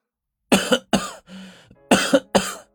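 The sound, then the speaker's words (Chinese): Violent, harsh coughing from a man holding his neck after being choked: two loud hacking coughs, a raspy strained breath, then two more forceful coughs, with no talking. “单手捂着被宋子阳紧扣的脖颈，在剧烈的咳嗽着。”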